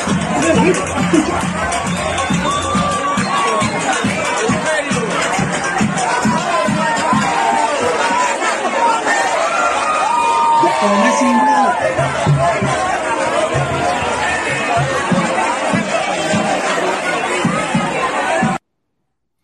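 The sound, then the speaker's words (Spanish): A dense street crowd in Cuba shouts and sings together on New Year's Eve, a loud continuous roar of many voices with chanted, rhythmic pulses and raised melodic cries, sustained for nearly twenty seconds before cutting off abruptly. “La gente gritando, eh, cantando en plena calle ahí,”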